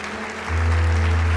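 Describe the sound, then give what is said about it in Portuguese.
An audience at an evening church service applauds Jesus with steady, dense clapping throughout, and a deep sustained low note, like an organ or keyboard bass, joins halfway through beneath the applause. “Dá um forte aplauso a Jesus aí.”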